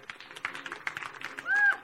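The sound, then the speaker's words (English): A crowd claps hands to give God the glory, in a dense, continuous patter of many overlapping claps, with voices mixed in and a brief high-pitched shout near the end. “Anybody who knows that God's going to deliver you to his purposes, clap your hands and give God the glory.”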